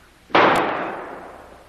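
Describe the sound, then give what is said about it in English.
A single sharp gunshot fired in a tunnel cracks out abruptly, loud, then rings off into a long echoing decay. No one speaks. “Missy, why you knock Kolu's arm up? Maybe you make Kolu miss.”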